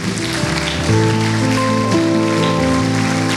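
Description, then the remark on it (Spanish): A large crowd applauds the Lord loudly and continuously, a dense wash of clapping, with steady held musical tones sounding underneath. “¿Qué tal si todos juntos le damos un fuerte aplauso al Señor?”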